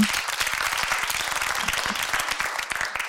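Steady audience applause welcoming a psychotherapist guest fills the whole moment, a dense, crackling wash of many hands clapping at a fairly even loudness with no voices standing out.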